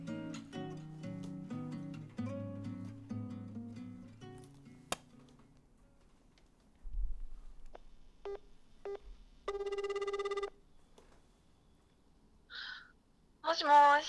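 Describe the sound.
Music fades out, then a few short dialing beeps and a single steady ringback tone of about a second play on the line of a phone call placed during a radio show recording, before a voice answers briefly near the end.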